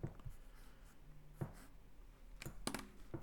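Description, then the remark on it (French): A pen scratches across a scrap of paper in short, irregular strokes, quiet, with brief pauses between bursts of writing and no voices, as someone writes the word "canif" (pocketknife). “Ouais, j'ai écrit un canif sur le bout de papier avec mon stylo.”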